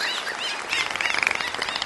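Bottlenose dolphin calls: a few high, squeaky whistles rising and falling in arcs, then a quick run of chattering pulsed buzzes, fairly loud with no voices.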